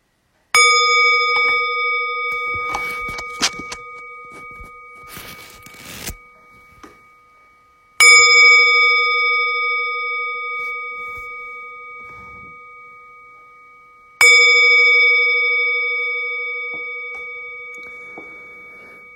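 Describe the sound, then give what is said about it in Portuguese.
A meditation bell is struck three times to begin a meditation period, at slow spaced intervals, each strike ringing out clear and bright with a rich overtone hum that fades slowly before the next. Some faint clicks and rustles occur between strikes. “E quando a gente faz a meditação, a gente convida o sino a soar três vezes para começar o período de meditação e uma vez para terminar.”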